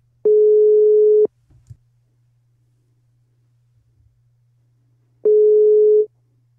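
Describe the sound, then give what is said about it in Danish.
Two long, steady beeps of an outgoing phone call's ringing tone, a call placed to a singer-guitarist to wish him a happy new year, each about a second long with a four-second silent gap between, heard clearly over a faint low hum. “Og mens vi lyttede til sangen, så har jeg fundet hans telefonnummer, så nu kan jeg bare trykke på ring op-knappen.”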